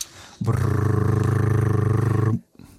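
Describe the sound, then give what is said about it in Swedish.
A voice imitates a drum roll with a loud, steady, rapidly fluttering rolled growl held for about two seconds, then cut off abruptly. “Kan jag få en trumvirvel”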